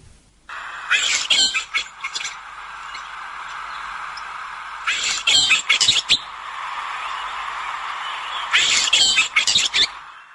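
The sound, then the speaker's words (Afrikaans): Three bursts of scratchy, metallic chirps and rattling notes from a Cape sugarbird, spaced several seconds apart over a steady high background hiss, clear with no voices. “Nou hulle klink so.”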